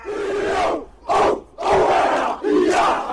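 A Maori haka, a ceremonial battle-cry dance from New Zealand: a large group chants and shouts in unison, delivering forceful battle cries in four loud, rhythmic bursts separated by brief pauses, powerful.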